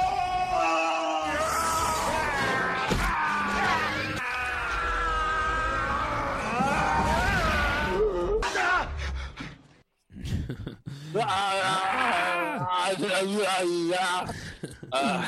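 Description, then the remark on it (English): A montage of Arnold Schwarzenegger screaming: a man screams and bellows over and over in loud, strained bursts, spliced together with a brief cut to near silence partway through before the yelling resumes. “It's got to be a Arnold Schwarzenegger just screaming montage.”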